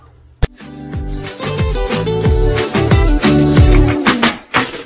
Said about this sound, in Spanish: el texto completo de la canción, que suena así. Escuchemos un poquito.